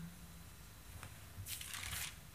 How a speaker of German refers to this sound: blättert eine Seite weiter.